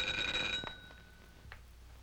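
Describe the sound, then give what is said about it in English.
A doorbell in a film scene rings with a bright, steady, high-pitched tone for about half a second, then stops abruptly, leaving a low hum and a couple of faint clicks. “but she is literally saved by the bell.”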